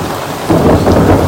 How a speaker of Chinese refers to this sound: 雷电交加，然后就倾盆大雨。到现在大雨没有停止哦。啊、哦，我打开窗户，大家听，欣赏一下。哇哇，稀里哗啦，稀里哗啦，稀里哗啦。还在闪电，还在打雷，还是继续下雨。